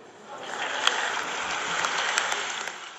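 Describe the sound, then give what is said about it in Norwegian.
Sustained applause from a large crowd in an assembly hall at UN headquarters as Sweden wins a UN Security Council seat, a dense steady patter of clapping with a few sharper claps standing out, holding at an even level throughout with no speech over it. “Applausen nådde ut på gangen i FNs hovedkvarter.”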